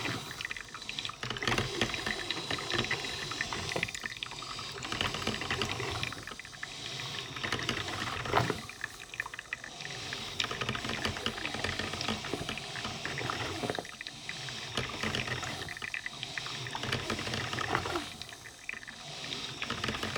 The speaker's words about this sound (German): Meinst setzt euch hin und genießt das Geräusch der Kaffeemaschine?